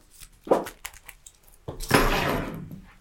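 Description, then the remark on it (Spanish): A metal chain rattles and clinks, first in a few short jangling bursts, then in a longer, louder shaking rattle that slowly fades out. “Y Se va con cadena.”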